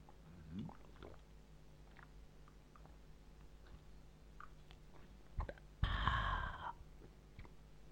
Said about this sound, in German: Warte mal, ich trinke mal einen großen Schluck Bier.